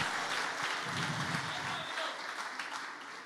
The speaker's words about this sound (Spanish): Si le va a dar un aplauso, déselo fuerte.